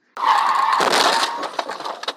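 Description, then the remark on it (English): A car pulling into a parking area hits the gas instead of the brake and crashes headfirst into the parked car in front: a sudden loud crash, followed by breaking glass and debris scattering and tinkling for a couple of seconds before trailing off, with no voices. “Mistakenly, I hit the gas pedal instead of the brake, causing my car to careen headfirst into the parked car in front of me.”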